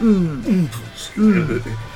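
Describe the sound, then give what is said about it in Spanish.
A person imitates a lion's call with two throaty, descending vocal bursts, each sliding downward in pitch, separated by a short pause. The voice is moderately loud, with no other talk. “Dice, dice, no llames león, no llames león, porque hacías así”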